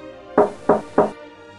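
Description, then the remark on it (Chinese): Three firm knocks on a wooden door of an old king's home during a stormy night, evenly spaced about a third of a second apart, each a sharp thud with a short resonant ring, followed by quiet. “可是，就在这个时候，有人在敲门。”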